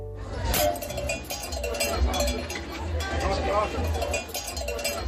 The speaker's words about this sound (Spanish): Alerta, si usted escucha estas campanillas en las calles de Estambul, que sepa que le van a vacilar, porque estas son las campanillas con las que se anuncian los bromistas heladeros turcos.